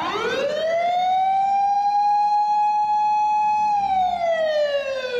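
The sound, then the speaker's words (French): Distant emergency vehicle sirens wail near a subway station, the tone sweeping upward, holding a long steady pitch, then starting to fall away, loud and continuous over a faint low rumble with no one speaking. “Les sirènes retentissent au loin, mais aucune ne se dirige vers eux.”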